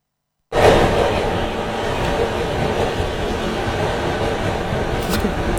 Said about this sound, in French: Il s'agit, je le reconnais très bien formellement, c'est le métro de Tokyo. Absolument.